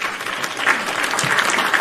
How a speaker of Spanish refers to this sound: Aplausos y, ovaciones. ovación.